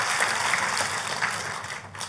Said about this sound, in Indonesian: Kita kasih tepuk tangannya yang paling meriah buat Tuhan kita.